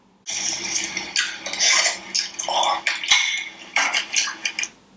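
Wet slurping of a mussel by a woman in several uneven bursts over a few seconds, with a faint clink partway through and no one talking.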